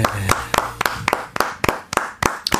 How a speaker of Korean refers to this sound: 바깥에 지금 숙녀분들이 서서 박수 치고 있는데, 아, 자, 제가 소리 질러 하면 소리 한번 질러. 소리 질러!